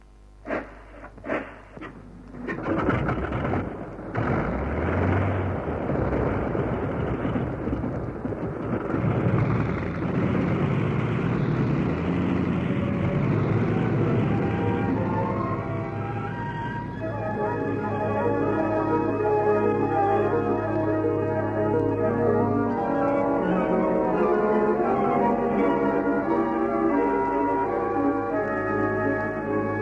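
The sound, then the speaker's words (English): A propeller plane, the Mozzie, coughs into life and swells into a loud, steady roar as it takes off, with a droning, humming tone running under it throughout. “Keep clear, you blokes. I'm taking off now.”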